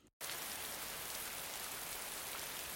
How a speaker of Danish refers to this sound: Det regner udenfor. Faktisk pisser den ned.